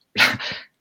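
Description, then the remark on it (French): A cat lets out one short, loud, two-part cry. It rises sharply, then trails off in under a second, with no talking around it. “Excusez-moi, c'est le chat qui est là.”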